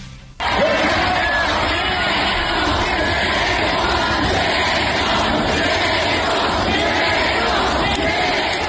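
A large crowd at a palenque shouts and cheers loudly, a dense roar of many voices that bursts in abruptly and holds steady without a break, with chanting-like swells rising through the din.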